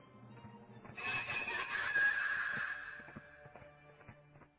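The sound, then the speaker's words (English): A shrill, warbling witch's cackle rises suddenly and trills for about two seconds before fading away, with faint clicks and a low hum underneath. “I love that little witch's laugh thing that I got.”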